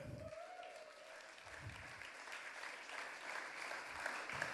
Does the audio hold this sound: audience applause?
yes